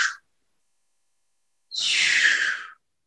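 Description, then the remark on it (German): A voice imitates ocean waves with a drawn-out, breathy whoosh lasting about a second, preceded by a brief soft hiss; fairly quiet, with no other sounds. “da bin ich in dieser Hängematte und ich fühle, wie da drin liegt und ich höre dieses Sch”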